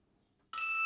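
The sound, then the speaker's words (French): A single bell strikes once after a moment of silence, signalling to start jumping again, a bright metallic ring with several clear sustained tones that hangs on steadily without fading by the end. “Cloche une fois, vous recommencez à sauter.”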